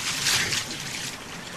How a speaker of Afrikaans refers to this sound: Die inwoners van die dorpie hoor iets wat klink soos water wat in 'n rivier afstroom. Hulle besef dit is die waterslang wat uitgelate lag van blydskap.